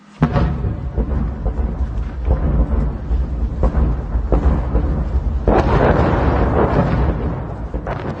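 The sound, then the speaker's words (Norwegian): Heavy, continuous rumbling booms of artillery fire from both sides at the front line at Bakhmut, Ukraine, with repeated deep thuds and blasts rolling into one another, loud and sustained, with no voices. “Du hører lyd fra Bakhmut, et spesielt varmt område ved den lange frontlinjen i Ukraina. Her brukes det spesielt mye artilleri fra begge sider.”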